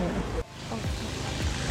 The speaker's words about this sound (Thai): เสียงเรือ เรือลำไม่ใหญ่ด้วยนะแต่เสียงดังเหมือนอยู่ใกล้